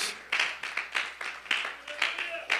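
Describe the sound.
An audience claps their hands together in a steady, rhythmic burst of applause to give glory to God in the morning, full, with faint voices blending underneath the clapping.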